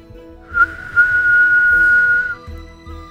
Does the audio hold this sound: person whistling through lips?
yes